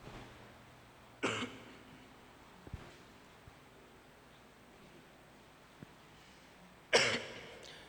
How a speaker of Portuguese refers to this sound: faz um mês que eu estou com essa tosse alérgica.